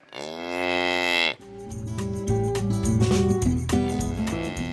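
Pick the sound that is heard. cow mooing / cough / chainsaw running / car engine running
cow mooing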